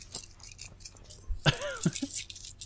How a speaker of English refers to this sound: That's over a dollar of change I just pulled out of my pocket. Oh my gosh. At least two dollars.